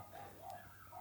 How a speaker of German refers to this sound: oh, wenn hier draußen die Hunde nicht so kläffen würden. Was ist denn hier los? ja, egal. Ähm, ich hoffe, ihr hört das jetzt nicht, wieder draußen gerade ein paar Hunde abgehen.